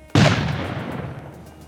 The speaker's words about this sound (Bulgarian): Важен въпрос е какво се случи на 1 май. Дали имаше взрив